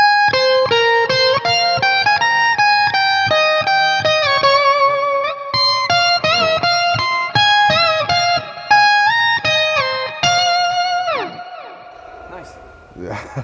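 Electric guitar run through a whammy pedal fixed on its octave setting plays a quick, bright melodic line of separate notes with thick doubled tones, ending in a downward pitch dive and a fading sustained note. The drive comes from the amp alone, with no distortion pedals.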